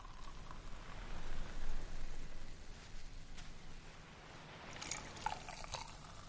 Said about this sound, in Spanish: Shikishima sostiene la copa entre los dos. Eren la mira y mueve su mano hacia la copa. La coge. Shikishima sirve champán.